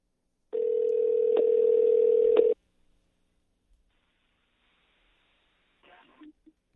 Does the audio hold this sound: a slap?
no